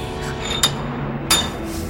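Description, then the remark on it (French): Two sharp hammer taps on stone, spaced under a second apart, each with a brief bright ringing clink, over a low steady background hum, as a young woman hammers rock to uncover fossils. “Grâce à quelques coups de marteau, la jeune fille a réussi à les réveiller.”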